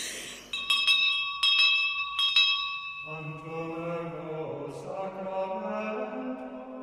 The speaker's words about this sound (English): bell over there so often at this Holy Innocents school that we all wondered what was going on over there. And of course, I think that we wondered if they ever had any lessons because every time the bell rang, somebody said they had to go to prayers.